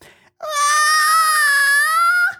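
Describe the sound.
A voice imitates a shrill, piercing scream heard through a microphone at a concert area, one sustained high-pitched wail lasting about two seconds, loud, held at a steady pitch before cutting off abruptly.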